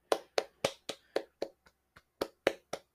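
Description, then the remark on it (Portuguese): A single person claps about a dozen times in a steady, slightly uneven rhythm, sharp smacks with a brief pause near the middle, no voices. “Minha salva de palmas para você que ganhou o prêmio de pior filme já visto por mim.”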